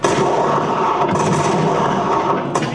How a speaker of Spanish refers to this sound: Entonces se van a producir disparos.